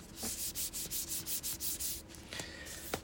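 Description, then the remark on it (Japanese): Fingers rub back and forth across the cardboard paper-jacket sleeve of a live CD album in a steady series of about ten soft, scratchy strokes, followed by a brief handling rustle and a small tap. “ライブアルバムの紙ジャをこう触ってるんですこの音”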